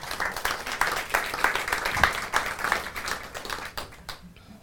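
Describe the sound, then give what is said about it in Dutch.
A crowd applauds steadily for several seconds, a dense patter of many hands clapping that thins out near the end, with a faint murmur of voices underneath. “En daar mag wel even voor geapplaudiseerd worden.”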